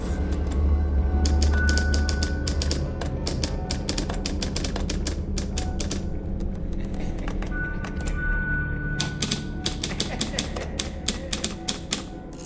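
A typewriter clatters away in quick, irregular bursts of sharp key strikes, with brief pauses between runs, over a steady low rumbling hum throughout.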